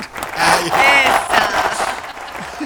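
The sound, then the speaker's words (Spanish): A short burst of canned applause, a dense steady wash of clapping mixed with crowd cheers and whoops, holding at full loudness for a few seconds before easing slightly. “Era para que dentro de un rato Lu va a poner el cosito de aplauso.”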